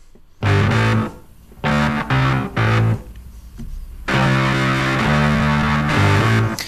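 A hard rock song driven by heavily distorted electric guitar, playing loud chopped riff bursts with gaps between them, then settling into a sustained, full-band groove. No one speaks.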